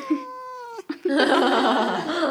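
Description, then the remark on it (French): A single clear cat meow with a slightly falling pitch, followed after a brief pause by a longer burst of rough, noisy sound. “Toi, Chou, as-tu quelque chose à dire sur l'écologie Un petit miaou.”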